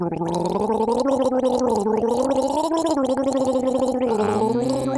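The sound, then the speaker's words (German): A person gargles the melody of the Christmas carol 'Am Weihnachtsbaume die Lichter brennen' as a guessing game. The bubbling, watery throat sound rises and falls in a steady melodic line for several seconds, fairly loud, with no words. “Pass auf, ich gurgel ein Lied und du musst erraten, welches Lied ich gurgel.”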